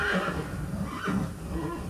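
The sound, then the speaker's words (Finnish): A horse whinnies in a wavering, high-pitched call with a rough, breathy edge, lasting a couple of seconds at a moderate level with no voices. “Nouda hevoset kaader.”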